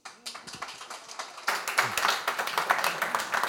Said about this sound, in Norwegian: Gi dem en varm applaus.